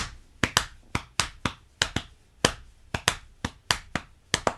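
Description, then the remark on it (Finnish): Sharp, dry hand claps demonstrate a four-against-five polyrhythm, four quarter notes and five quarter notes layered over each other, so some claps land almost together in quick pairs while others fall alone, repeating steadily with no voices. “Joo, siinä, eli siinä on niin kuin tavallaan, sulla on neljä, neljä neljäsosaa ja viisi neljäsosaa päällekkäin, mm-hmm.”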